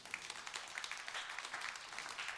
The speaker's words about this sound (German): Danke vielmals, das ist ein Applaus wert, glaube ich.